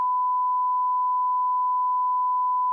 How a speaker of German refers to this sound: Jetzt habt ihr wahrscheinlich nur Piepsen gehört und habt keine Ahnung. Das liegt nicht an mir.